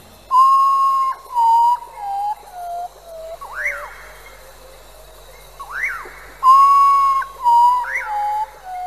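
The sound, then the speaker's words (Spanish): A common potoo (cacuí) gives its mournful night call in the jungle: loud, clear whistled notes sliding downward in a falling series, heard twice, with rougher swooping cries between them over a steady high, faint hum. “Este es el grito del cacuí, cuyo lamento suena por las noches en la selva.”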